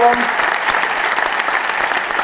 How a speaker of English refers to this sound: please round of applause for everyone here at the, uh, who works at the Duchess tonight, uh, who made tonight possible